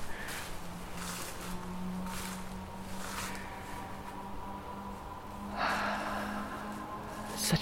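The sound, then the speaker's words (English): A dog sniffs in several short, breathy bursts spaced irregularly while being walked in a suburban urban forest, over a steady low rumble of highway traffic. “Oh, we gotta go sniff something.”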